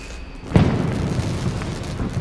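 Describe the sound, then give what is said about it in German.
A single fireworks explosion sound effect bursts out with a sharp boom, followed by a long, crackling, rumbling tail that stays loud as it fades. No one speaks. “Deswegen gibt es das Info-Feuerwerk.”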